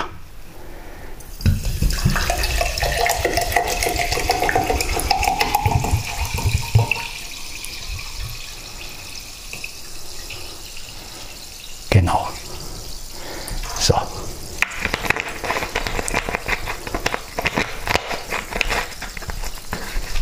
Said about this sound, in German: So, ich gieße mir jetzt Selta ein. Also Mineralwasser, vielmehr. Ihr könnt es wieder hören in den Keramikbecher.